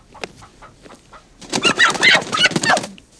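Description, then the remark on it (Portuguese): A chicken held by a woman flaps its wings in a loud flurry lasting over a second, with agitated clucks and squawks mixed in, after a few quieter scattered clucks, outside beside a truck. “Ela é magra, está com um lenço preto amarrado na cabeça e usa vestido segura uma galinha.”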